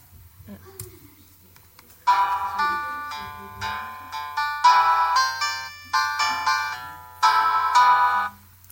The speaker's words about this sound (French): ok, alors à quel moment t'aimerais bien écouter ce genre de jingle Le matin en te réveillant ou le soir en te couchant